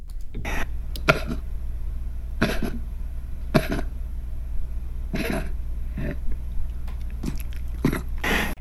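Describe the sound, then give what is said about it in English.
A dog with heart disease coughs repeatedly, about nine harsh, hacking bursts with a fluid sound, in irregular bunches, some in quick pairs. The coughs are fairly loud over a low steady hum, with no one talking. “Well, this is the sound of a dog uh, that has heart disease.”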